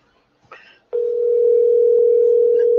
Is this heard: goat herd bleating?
no